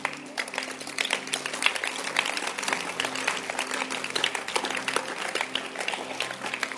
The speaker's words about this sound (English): You can clap for Jesus.